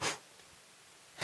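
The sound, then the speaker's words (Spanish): Two short, breathy puffs of air blown onto an iPad, loud, with a second of near-silence between them and no talking. “Es como, miren, eh, hay que soplarle.”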